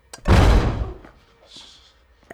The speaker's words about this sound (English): And he goes back inside, and we hear this huge slam as the big guy hits the door.